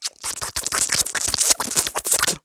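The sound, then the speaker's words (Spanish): A small puppy laps drinking water loudly, a quick, steady run of wet slurping flicks that carries on without a break and with no voices. “perdonen si se escucha, pero Pablo está tomando agua. Toma agua muy alto”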